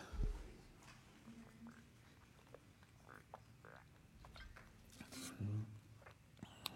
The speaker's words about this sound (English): If that was picking up on the mic, those of you listening, I was drinking water. That wasn't a cricket in the room, okay? I was slurping water.